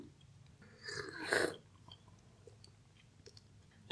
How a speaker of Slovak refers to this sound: Tak prejdeme teda k druhému kroku a kávu si usrknem.